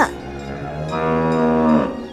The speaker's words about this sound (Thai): แต่ว่าขณะที่มันกำลังเดินเข้าไปในโพรงดิน ก็ได้มีเสียงเสียงหนึ่งดังขึ้นจากด้านหลังพอเจ้าหนูได้หันไปดู ก็ได้เห็นว่าเป็นวัวตัวหนึ่งนั่นเอง